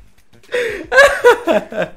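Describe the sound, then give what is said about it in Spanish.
A person mimics a crying baby with a run of about five short, wavering, high-pitched wails, fairly loud, each burst breaking off before the next. “¿Qué pasó, mami? No llores.”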